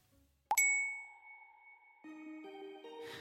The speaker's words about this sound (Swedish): Och nu, så fort telefonen plingar så hoppas jag att det är han.